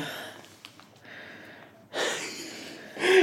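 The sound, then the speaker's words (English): Heavy breathing: a few long, noisy breaths in and out, growing louder and rougher toward the end, with no talking. “She's just breathing.”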